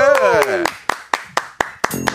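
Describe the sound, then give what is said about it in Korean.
Sharp hand claps ring out in a steady rhythm, roughly four per second, as an audience applauds; a voice and tonal sounds are heard briefly at the start. “예, 우리 지조하고 저 뜨거운 박수요.”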